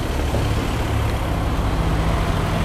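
A loud, powerful car drives past, its deep low-pitched engine roar rumbling steadily at an even level for the whole moment, with no voices present.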